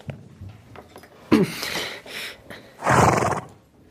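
A horse neighs loudly twice, a sharp whinny followed by a longer, fuller one, with faint shuffling and soft background noise between the calls and no talking.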